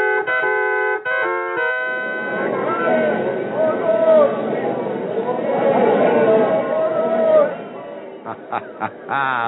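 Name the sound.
arena crowd cheering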